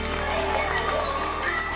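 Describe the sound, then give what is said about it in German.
A loud, dense crowd of hundreds, many of them journalists, cheers and shouts while Jack Ma rings the famous bell at the New York Stock Exchange on Wall Street in September 2014, opening trading and Alibaba's stock market debut; the bell rings steadily through the noise for the whole stretch. “Es ist laut, Lichter blitzen und dann läutet Jack Ma die berühmte Glocke.”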